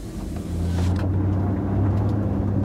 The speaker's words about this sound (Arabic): وبينما كانت السيارة تسير بعيدا تاركة سحابة من الدخان، وقف ريد مذهولا في صمت.